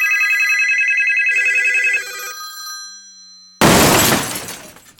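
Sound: telephones ringing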